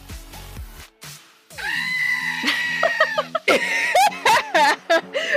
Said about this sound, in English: a long time to be sitting there just listening to creepy ass screaming. Yeah. Let's all close our eyes for a moment and imagine that we're laying in the dirt waiting for screaming to die down. For half an hour.